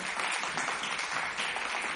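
A concert crowd at the first Colores y Folclores Son Huasteco concert in the City of Palaces applauds a trio steadily, a dense wash of many hands clapping at an even, sustained level with no pauses and no voices standing out.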